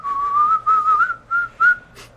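person whistling

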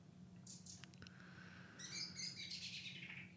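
birds chirping

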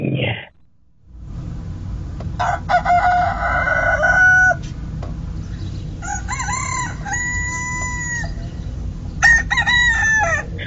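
roosters crowing

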